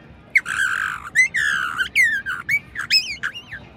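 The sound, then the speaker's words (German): A voice imitates a vulture's squawk with a quick run of about eight harsh, raspy cries, some ending in a rising whistle-like tail, loud with no talking. “Ein Geier.”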